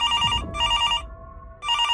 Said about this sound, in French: Quelques minutes plus tard, le téléphone sonne de nouveau.